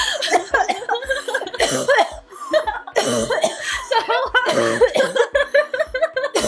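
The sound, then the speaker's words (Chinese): A prolonged fit of coughing: loud, harsh, repeated bursts in an uneven rhythm, mixed with breathy laughter and a few voiced sounds, running for several seconds. “哎，我们把这个咳嗽留下来好不好？”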